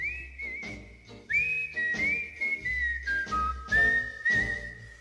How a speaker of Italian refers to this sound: e sentiamoci il primo brano.